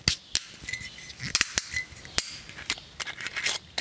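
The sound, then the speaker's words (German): Crisp ratcheting clicks and crackles as the metal screw cap is twisted off a bottle of 2020 Riesling Spätlese halbtrocken wine, a few sharp snaps amid a steady fine crackle, with no talking. “Und heute klingt das wie wenn man eine Flasche Mineralwasser öffnet.”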